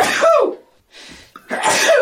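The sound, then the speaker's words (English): Two loud sneezes with a short sharp inhale between them, each an explosive burst of breathy noise that fades quickly. “but I reckon I think a sneeze is coming.”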